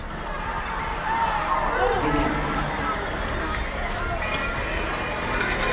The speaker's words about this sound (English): And this crowd is going crazy because they want this team to win. Friday Night Sports in Tulsa, Oklahoma. The sound of Oklahoma. That's the sound of Oklahoma people cheering.